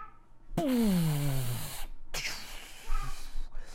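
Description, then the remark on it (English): A voice imitates a huge explosion: a loud, breathy blast with a falling, growling pitch that lasts over a second, then a second, rougher hissing burst trails off. “like that huge explosion and it was so loud”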